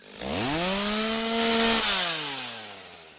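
A chainsaw engine revs up to a loud, steady whine, holds it for about a second, then drops in pitch as the motor winds down. There is no talking.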